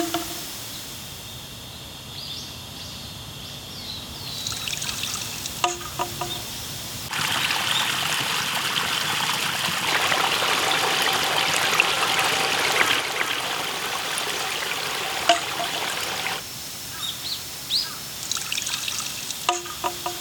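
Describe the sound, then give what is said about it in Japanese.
Water trickles steadily from a bamboo shishi-odoshi fountain in a garden in the morning, swelling louder for a stretch midway, with a few sharp brief knocks and faint bird chirps around it. No one speaks. “目覚めのいいね今朝は庭園に響く獅子おどしの音色それではお聞きください”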